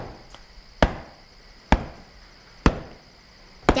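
An axe bites into a tree trunk four times at a steady, unhurried pace, cutting a notch from one side, each blow a sharp thunk, with a faint insect-like chirring in the background.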